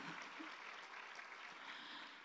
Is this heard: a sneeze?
no